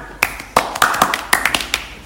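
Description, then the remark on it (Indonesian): Scattered hand clapping from a small group, sharp irregular claps rather than a steady rhythm, moderately loud for about two seconds, with no talking. “dan juga pasti konten-konten dari mereka tuh menarik juga dong tapi tetap menarikan kita ya tepuk tangan”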